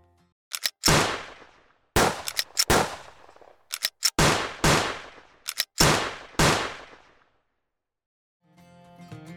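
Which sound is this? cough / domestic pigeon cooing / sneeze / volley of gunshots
volley of gunshots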